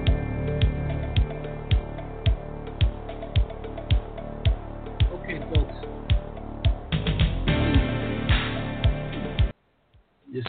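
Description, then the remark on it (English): Short intro music with a steady beat of sharp snap-like hits over sustained tones, playing at an even tempo for about nine seconds before cutting off abruptly into near silence. “Set my little intro music here.”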